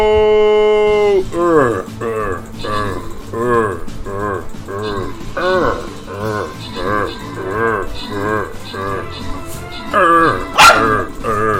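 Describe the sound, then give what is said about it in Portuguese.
A dog barks loudly and insistently, a rapid, steady string of about a dozen sharp, tonal barks with one higher yelp near the end. “Relaxa, cachorro.”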